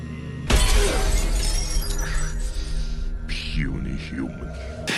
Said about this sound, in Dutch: En dan opeens dan bam, dan knalt hij zo. en dan pakt hij eh, de Hulk die knalt dan die, dat glas kapot en die trekt hem dan eruit.